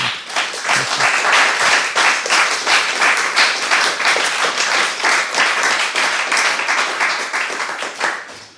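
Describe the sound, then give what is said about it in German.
A crowd applauds steadily, dense overlapping claps sustained at an even, fairly loud level for several seconds before tapering slightly at the end. “Ein, ja, nochmal sehr warmen Applaus, dass du da bist.”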